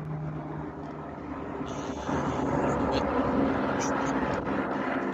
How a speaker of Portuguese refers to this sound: Opa! Meu Deus do céu! E antes, se esse avião não cair aqui a gente não morrer